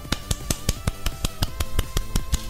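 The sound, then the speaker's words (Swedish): A steady run of sharp hand claps celebrating a nomination in two categories at the Guldpodden awards, about a dozen in quick even rhythm, with a low sustained tone humming underneath and no one speaking. “Ja, en applåd.”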